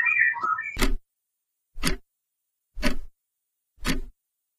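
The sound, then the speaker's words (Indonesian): A bird gives a brief burst of warbling chirps, then four sharp, clicky calls spaced evenly about a second apart, with no one talking. “Ini suara burung.”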